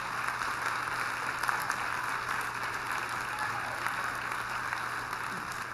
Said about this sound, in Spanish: Vamos y caballeros, despidamos con un fuerte aplauso